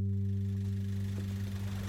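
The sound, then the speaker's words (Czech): The engine of a firefighters' motorboat drones steadily with a deep, throbbing hum, holding an even loudness throughout, with no voices. Firefighters are arriving by boat at a flooded area to evacuate it. “teď přijíždějí hasiči na motorovém člunu.”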